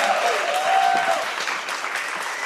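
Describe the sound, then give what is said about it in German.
A crowd gives thunderous applause welcoming a journalist and podcaster from Cologne, dense clapping for a few seconds, with a faint whistle or cheer rising briefly near the start. “Bitte begrüßen Sie mit donnerndem Applaus die wunderbare Journalistin und Podcasterin aus Köln”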